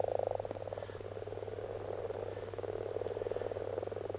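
A frog croaks in a steady, rapid series of low, rasping pulses, continuing throughout without pause. No one speaks, and a constant low hum runs underneath.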